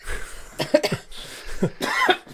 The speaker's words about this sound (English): Excuse me. Excuse me as well. We've all we've all had colds on top of yes. colds yeah. that we were recovering from. Actually, um, I'll probably be coughing a lot less this time than it was last time.